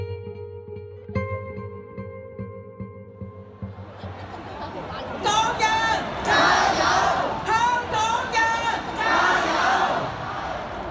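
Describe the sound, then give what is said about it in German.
A low, steady hum gives way to a large protest crowd in Hong Kong, recorded in October 2019, roaring and shouting together in loud, rhythmic bursts of chanting, with a dense wall of voices building up after a few seconds. “Damals gibt es schon seit Wochen immer wieder große Proteste in der Stadt.”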